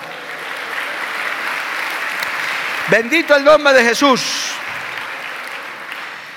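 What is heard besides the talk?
audience applause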